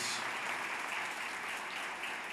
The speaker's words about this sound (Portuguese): Dá um aplauso a ele bem forte.